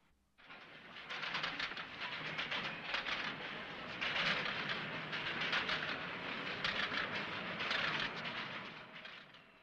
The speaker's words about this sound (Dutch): En als je komt in New York, dan hoor je dit allemaal. Mensen die ergens heen gaan. Mensen die door een draaihek gaan om de ondergrondse te pakken.